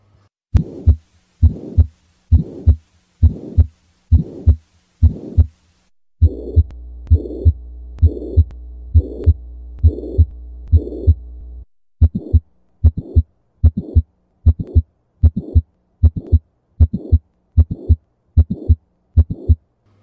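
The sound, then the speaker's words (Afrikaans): A steady heartbeat with repeated lub-dub pulses and a whooshing systolic heart murmur filling the gap between the first and second heart sounds of each beat, during the heart's contraction. It is loud, with no voices. “Ja, so tipies tussen die eerste en die tweede hartklank wat ons noem systolie of samentrekking van die hart, gaan ons 'n sistoliese geruis kry.”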